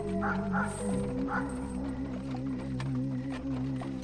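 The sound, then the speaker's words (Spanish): Several dogs in a village howl in long, wavering tones that run throughout, with a few sharp barks breaking in early on. The howls are steady, with no one talking. “Los perros, con su aullido, le dieron un toque sumamente escalofriante a lo que estábamos escuchando, pues no solo los de la casa, casi seguros que los de todo el poblado estaban aullando.”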